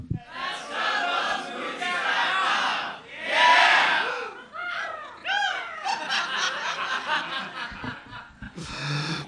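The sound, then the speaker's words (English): An audience lets out shrill, screeching eagle-like caws at the end of the host saying his website name, douglovesmovies.com, voices imitating a bird's caw, rising and falling in overlapping bursts with scattered laughter mixed in, loud throughout. “But yeah, people have decided to caw at the end of that, and I, I don't know.”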